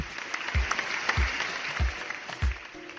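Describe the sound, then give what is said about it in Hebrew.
A crowd applauds in a dense, hissy wash of clapping, with deep thumps pulsing underneath at a steady beat roughly every half second. No one speaks. “נלך להצביע. כפיים!”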